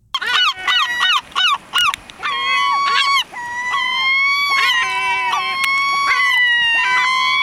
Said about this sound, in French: Ah, je peux comprendre que certains citadins soient agacés. Déjà, ce cousin de la mouette est très bruyant.